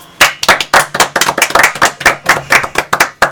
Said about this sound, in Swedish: En applåd!